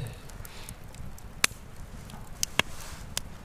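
Burning campfire wood crackles softly with a low, steady rustle, broken by a few sharp, bright pops scattered irregularly, with no voices.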